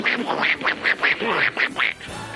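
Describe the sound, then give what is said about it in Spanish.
A voice imitates a Disney cartoon duck's raspy quacking, about seven quick nasal squawks in an uneven burst, fairly loud with no other talk. “un, pato que no sabe hablar, que lo único que hace”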